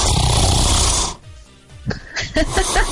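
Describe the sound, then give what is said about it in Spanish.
A real recorded human snore, not a sound effect: a loud, rasping snore fills the first second, then a brief quiet gap before softer breathy, snorting sounds resume. “Y ronco así, o es más, este, este, es un ronquido grabado literalmente de mí.”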